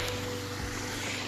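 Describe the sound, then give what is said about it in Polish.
Steady rushing wash of Baltic Sea waves on the shore, heard during an almost-spring walk along the Baltic, a continuous hiss with a low rumble underneath and no distinct breaks, constant in loudness throughout, with no voices. “Jest to szum Morza Bałtyckiego, ponieważ podcast nagrywam podczas wiosennego już prawie spaceru e, nad Bałtykiem.”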